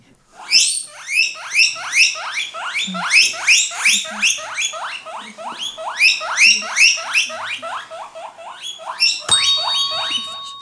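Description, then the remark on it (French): A guinea pig squeaks continuously in a rapid series of high, rising wheeks, fairly loud, with a brief bump or rustle near the end. “Euh, L'Otari Mauvaise réponse, c'était le cochon d'Inde.”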